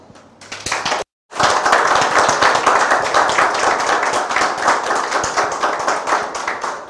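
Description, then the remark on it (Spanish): A crowd at a religious gathering during Sukkot breaks into sustained applause in praise of God, dense rapid clapping that starts, stops abruptly for a split second, then resumes loudly and steadily for several seconds with no talking. “Vamos a dar un fuerte aplauso al bendito sea por todo lo que nos ha otorgado.”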